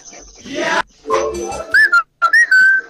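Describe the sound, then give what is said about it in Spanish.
A few short whistled notes with bending pitch ring out clearly after some brief noisy sounds, the tones sliding up and holding steady, fairly loud. “a ver, una silbadita, a ver, quiero escuchar.”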